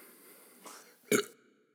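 A single short burp, fairly loud, follows a softer throaty sound a moment earlier, then quiet. No one speaks.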